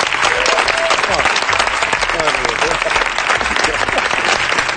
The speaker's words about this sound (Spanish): Vamos a aplaudirnos todo, venga, vamos a aplaudir.